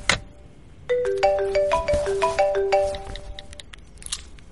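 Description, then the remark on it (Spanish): A cell phone ringtone for an incoming call plays a bright, repeating melodic pattern of quick electronic tones for a few seconds, clear, with no one speaking. “Me está entrando otra llamada por el celular.”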